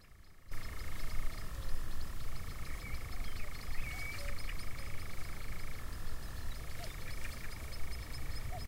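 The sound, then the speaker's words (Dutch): A European nightjar's churring call, a steady, unbroken mechanical trill that runs for several seconds, pauses briefly, then resumes, over a low outdoor rumble. “Hier kun je de ratel heel goed horen.”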